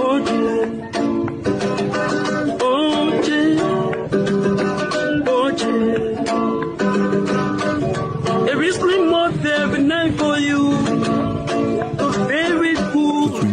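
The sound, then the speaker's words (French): A homemade guitar in Liberia, built from oil cans with a piece of wood for the neck and old brake cables for strings, plays a lively, continuous tune, its twangy plucked notes ringing out loud in a steady rhythm for the whole stretch. “À base de bidons d'huile, avec un bout de bois pour le manche et des vieux câbles de frein pour les cordes.”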